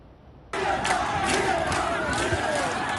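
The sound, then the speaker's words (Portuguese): Thousands of protesters march through the streets of Havana, Cuba, shouting slogans of freedom and down with the dictatorship against the communist government, a loud, dense roar of many voices with rhythmic surges, starting abruptly after a brief quiet moment and continuing steadily. “Aos gritos de liberdade e abaixo a ditadura, milhares de manifestantes marcharam pelas ruas de Havana e outras cidades cubanas.”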